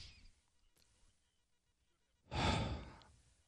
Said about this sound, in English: doing breathing exercises over here to my left.